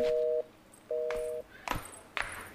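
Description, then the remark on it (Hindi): Two steady electronic tone pulses of a call placed on a mother's phone, ringing out on the line with no one picking up, followed by a few sharp, faint clicks and knocks. “Gita mummy का phone लेकर phone लगाती सामने से कोई फोन नहीं उठाता वो फोन को लेकर ऊपर नीचे ऊपर नीचे करती रहती”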